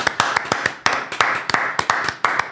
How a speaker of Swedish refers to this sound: Alltså jag känner att det, det här är ju värt en applåd. Ja, verkligen, Det, fan, det var vackert.